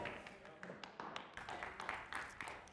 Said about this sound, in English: Thank you for the three people that clapped.